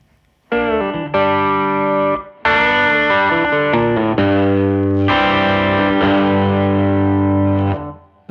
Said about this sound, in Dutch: ja, maar dit, dit, klinkt natuurlijk gewoon helemaal te gek. Ja. ja. Een soort oersound. Ja. Echt tof is aan deze Telecaster is dat, hij, heeft een soort laag nog of zo, wat, eh, wat, wat veel Telecasters missen in, in die achterste pick-up.